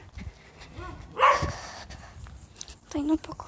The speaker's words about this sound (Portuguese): Ah, é, tem cachorro também, viu?